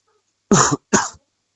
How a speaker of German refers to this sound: Hust, Hust. Wer ist da, Hust, Hust? Gute Besserung erstmal.